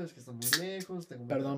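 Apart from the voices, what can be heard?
soda can being opened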